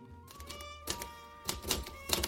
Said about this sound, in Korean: 최신형 타자기. 이 자판 소리 좀 들어보세요. 정말 경쾌하죠?